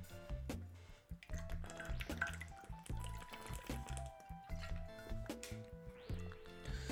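A person drinks water, with a run of wet sips, gulps and liquid sloshing over several seconds and no talking.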